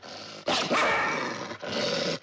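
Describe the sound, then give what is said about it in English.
Caged foxes on a farm snarl and snap their teeth at a woman approaching their cages: harsh, loud growling bursts, one long and a second after a brief pause, with no voices. “Every time she approached their cages, they snarled at her, snapping their teeth.”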